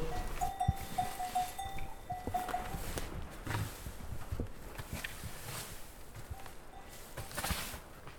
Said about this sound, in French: On est dans le tunnel d'élevage, la, la, serre euh, qui sert d'étable. Et du coup, là, il y a la, vache qui va bientôt mettre bac, et là, avec les génisses.